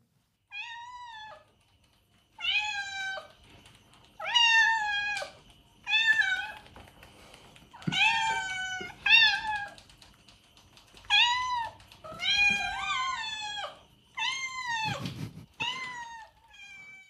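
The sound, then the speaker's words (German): A cat meows repeatedly, about ten drawn-out, wavering cries in irregular succession, fairly loud, some overlapping into a yowl, with no talking. “Nee, die, äh, ich habe euch eine Katze mitgebracht”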